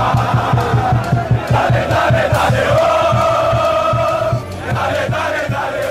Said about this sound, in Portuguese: No Castelão, a torcida embalou a seleção. Vai começar a festa!